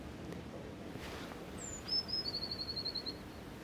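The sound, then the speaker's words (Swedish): A blue tit sings a short, high song: a few thin introductory notes followed by a quick, even trill, over a steady low outdoor rumble. “Nej, det är, blå, det är blåmes.”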